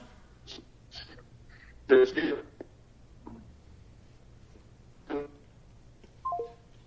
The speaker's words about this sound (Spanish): profe, lo perdemos, ya no lo estamos escuchando bien. Déjeme, por favor, cortar la llamada y la, volvemos a hacer porque ya lo estamos escuchando un poquito mal. Permítame.